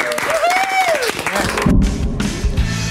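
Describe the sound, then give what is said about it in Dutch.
A studio audience at a festive TV broadcast claps and cheers, with a rising and falling whoop over dense applause, then low thumping beats come in beneath the continuing noise. “Applaus voor de helden.”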